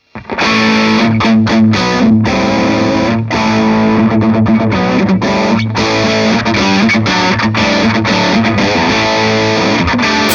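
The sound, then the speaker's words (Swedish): A heavily distorted electric guitar, played through a Dynamic Distortion pedal with the pedal's tone turned down, plays loud, sustained chords and riffs alone for about ten seconds, the top end somewhat muffled. “Test, om, du spelar, om, du, om jag spelar på och så vrider du ner tonen på Dynamic yes. Distortion igen.”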